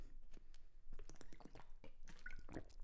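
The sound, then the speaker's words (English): Close-up wet gulping as someone takes a swig of water, with several moist swallows and small liquid squishes in quick succession, loud and right at the mouth, no talking. “As mentioned before, yeah, you just heard me drink that gulp.”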